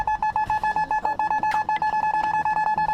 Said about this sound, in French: au supermarché scannent les, articles. Euh, qui euh, ce son-là, en fait, a une fonction pour elles euh, de euh, confirmation de l'action